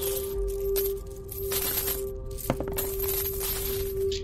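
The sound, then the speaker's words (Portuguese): Gold and silver coins from a small chest clink and jingle in a steady stream over a few seconds as they are counted, 130 gold and 180 silver, with one sharper clack partway through, all against a low constant hum and no voices. “Você encontra 100, 130 moedas de ouro e 180 moedas de prata.”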